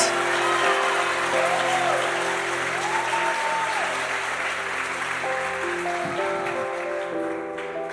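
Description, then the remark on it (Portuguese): Sustained applause from an audience for the actors after a performance, a dense wash of many hands clapping steadily throughout, with faint sustained tones running underneath. “Dá uma salva de palmas para os nossos atores.”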